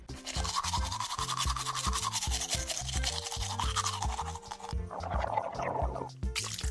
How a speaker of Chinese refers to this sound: 到了隔天早上，平时会赖床的科科自己从床上跳了起来，他赶紧刷牙、洗脸